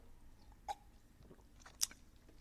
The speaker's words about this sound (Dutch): Even een slokje water.